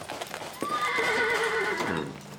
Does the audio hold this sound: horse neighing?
yes